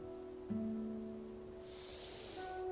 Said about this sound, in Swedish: Ja, här sitter jag ute i regnet.